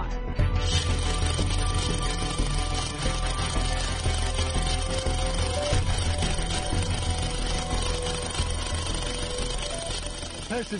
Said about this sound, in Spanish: Como veis y oís, el Perseverance cuenta con un taladro y todos los taladros hacen mucho ruido. Aunque en Marte el ruido es menor porque su atmósfera es mucho menos densa. Estamos a una profundidad de 3,9 milímetros.